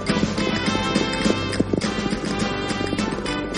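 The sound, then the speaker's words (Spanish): A herd of horses gallops past, a dense, continuous clatter of many hooves pounding at once, loud and steady throughout with no voices. “Una manada de caballos pasa cabalgando frente a Sancho que está perdido.”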